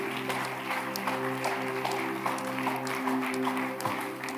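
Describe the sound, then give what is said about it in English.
An audience claps steadily for several seconds, giving the Lord a mighty clap, a dense, continuous patter of many hands, with sustained low musical tones holding underneath throughout. “Give the Lord a mighty clap of.”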